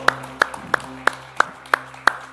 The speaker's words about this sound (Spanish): ¿Cuántos pueden dar un aplauso al Rey de Reyes?